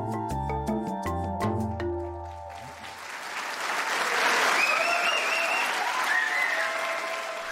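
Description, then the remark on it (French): A few seconds of music give way to a long, loud burst of applause from a crowd at the Supreme Court of the Netherlands on 20 December 2019, after a judge announced the final confirmation of a judgment: a dense steady clatter of many hands with scattered cheers rising over it. “Il y a des applaudissements qui sont historiques et cette très longue salve en fait partie.”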